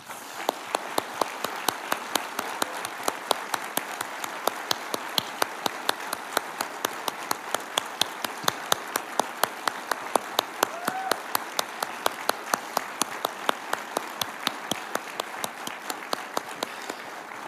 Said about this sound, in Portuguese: E eu gostaria que nós dessemos para cada voluntário. Uma forte, forte salva de palmas.